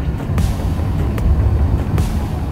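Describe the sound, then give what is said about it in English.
A deep, continuous rumble from beneath the ground at a rocket launch site as the countdown nears zero, filling the low end, steady and heavy, with a few brief crackling bursts cutting through. No voices. “And then, as it gets closer to zero, there is this rumbling that comes from beneath the ground.”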